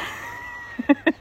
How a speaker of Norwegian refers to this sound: Dette er lyden av teip eh, som skal på fingre, som begynner å bli slitne.